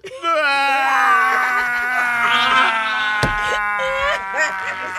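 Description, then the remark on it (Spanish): A suffering woman cries loudly, her voice drawn out in long, quavering wails that rise and fall without pause, broken near the end by a brief knock. “Escuchen el llanto de una mujer que sufre.”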